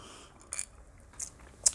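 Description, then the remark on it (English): A person takes a drink: three short, soft slurping sips spaced out over a quiet moment with no talking. “But uh, it take a sip here.”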